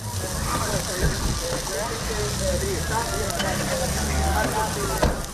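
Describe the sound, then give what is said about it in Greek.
A wildfire burns with flames leaping out from inside, a steady, dense crackling roar that holds at an even loudness throughout, with faint, indistinct voices and a few sharper pops mixed in. “Οι φλόγες ξεπηδούν ε, από μέσα.”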